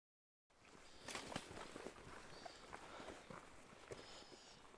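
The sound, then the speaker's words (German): Footsteps of people walking along a long, flat valley trail surrounded by huge mountains, crunching steadily and fairly loud, with an even walking rhythm over a soft hiss of open-air ambience and no talking. “So, aktuell laufen wir einem Tal entlang.”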